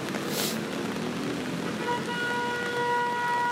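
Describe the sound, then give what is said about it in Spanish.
Street traffic rumbles steadily, then car horns start blaring about halfway through at an old man walking across without hurrying, holding long tones that overlap and keep sounding to the end, fairly loud. “Un ruco estaba caminando, le valió verga, ni siquiera corrió y los carros pitando.”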